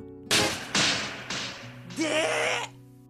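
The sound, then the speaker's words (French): A sharp slap to the face cracks out in a street and repeats twice more as echoes, each fainter with a ringing tail, followed by a brief hissing burst with a wavering tonal cry. “L'écho de cette claque résonne par trois fois dans la rue.”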